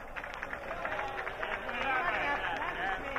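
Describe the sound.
A crowd of about 2,500 people applauds steadily, a dense, continuous wash of clapping that holds at an even level throughout, with some voices mixed into the noise.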